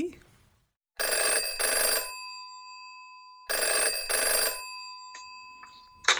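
A telephone rings twice in a classic double-burst bell pattern, loud, with a pause between the pairs and a brief snippet of something else near the end, as an incoming call arrives.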